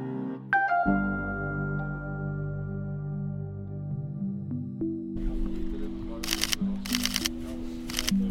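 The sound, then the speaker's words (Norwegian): Press camera shutters fire in three quick rattling bursts near the end, each a rapid flurry of clicks, over a low murmur of background noise after a sustained tonal hum fades out, as the press photographs the new city government of Bergen, Norway. “Så får dere bare si når dere er fornøyd med bildeuttaket”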